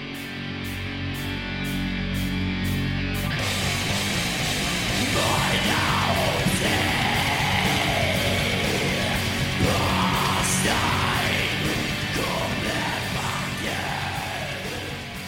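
A grinding black metal song by a Gotland band about a historical execution: a few seconds of rhythmic pulses give way to a dense, loud wall of distorted sound with harsh screamed vocals howling over it until the end, ending in blood-curdling chaos.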